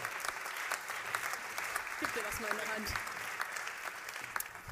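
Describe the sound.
Steady audience applause fills the whole clip, a dense crackle of many hands clapping at an even level, with a man's voice speaking briefly over it midway.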